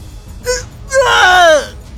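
A short gasping sound, then a man's loud, strained howl of pain after his finger is bitten off, holding for about half a second before its pitch sags downward and cuts off. No one speaks.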